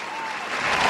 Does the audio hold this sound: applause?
yes